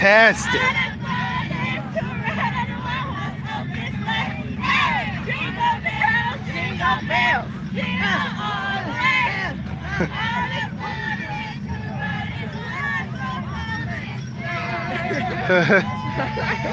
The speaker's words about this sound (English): Sound pretty good, huh? So we're about 11 and a half minutes into the parade, and we can already see the festivities going on here. We got people stopping on the side of the road, getting all these delicious goodies here.